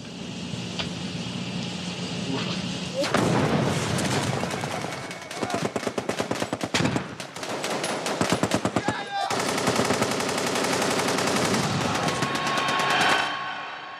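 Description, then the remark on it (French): Sustained bursts of rapid machine-gun fire rattle loudly over a rumbling battle din, with sharp gunshots, artillery and heavy, dense volleys continuing throughout like a wartime bombardment, during the bombing of Vietnam near Hanoi. “Le quotidien est rythmé par les sirènes d'alarme, les bombardements, les évacuations.”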